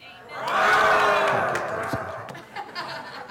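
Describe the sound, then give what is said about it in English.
An audience, asked for a little roar, roars together like lions, a loud swelling chorus of voices that peaks early and tapers into scattered shouts and laughter over about three seconds. “Can I have a little roar?”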